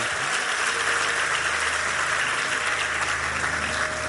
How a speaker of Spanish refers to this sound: Si alguien lo cree, denle un aplauso bien grande.